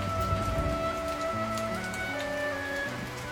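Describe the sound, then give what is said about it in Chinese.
Rain falls steadily, a dense, even hiss of drops that stays constant for a few seconds, with soft sustained tones humming beneath it and no one speaking. “真的如你所说的，下雨了。”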